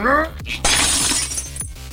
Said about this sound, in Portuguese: A sua pancada é forte o suficiente para rachar, trincar o resto do vidro e fazer com que ele caia no chão, dando acesso ao ambiente onde Anton está.